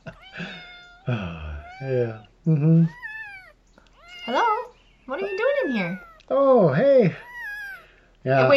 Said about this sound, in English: Is this a funny cat video? Yeah, isn't this hilarious? Oh my gosh, I don't know. I'm not sure how I feel about this. We got a cat with the ball and the oh my gosh.